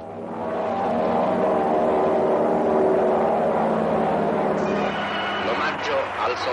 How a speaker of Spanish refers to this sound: Cazas biplanos surcan el cielo en formación.